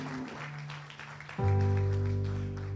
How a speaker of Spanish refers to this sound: Ponte de pie conmigo en esta mañana. Ponte de pie. Dale un aplauso fuerte al Señor si puedes. Dale un aplauso fuerte a Jesús. Ponte de pie.